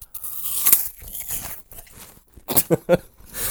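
A crisp bite into an apple, followed by a few sharp crunching chews in quick succession, with no talking.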